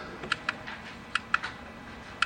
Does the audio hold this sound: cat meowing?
no